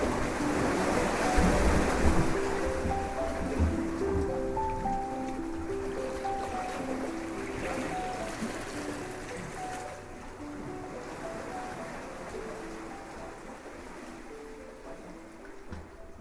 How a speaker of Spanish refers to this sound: Lo pone sobre la superficie del agua y ella ve cómo las olas poco a poco se lo llevan mar adentro.